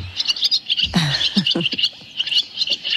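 A swallow twitters in quick, high chirps that repeat steadily through the whole stretch, clear, with a few soft low thumps in the background and no voices.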